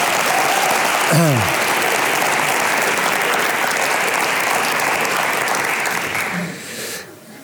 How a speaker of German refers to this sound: Ja, gebt ihr nochmal einen Applaus.